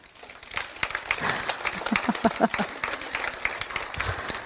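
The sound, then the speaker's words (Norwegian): A crowd claps together in dense, overlapping bursts, clapping first with two fingers, then three, four and five, swelling into a steady roar that imitates a heavy downpour. Brief murmurs of voices rise near the middle. “og så begynner dere å klappe samtidig.”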